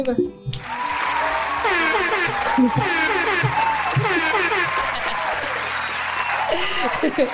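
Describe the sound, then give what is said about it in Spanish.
Steady applause erupts after a brief pause and continues loudly to the end, a dense wash of clapping with voices talking over it and faint music underneath. “Aplausos,”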